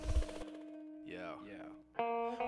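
Opening of a rap rock song: a heavy low hit, then warbling, pitch-bending effected tones over a steady droning note, ending with a bright, distorted chord that cuts in loudly.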